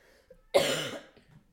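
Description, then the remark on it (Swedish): A single harsh cough from someone with a common cold, fairly loud, bursting out abruptly and then trailing off over a moment amid otherwise quiet surroundings. “Du måste hosta igen.”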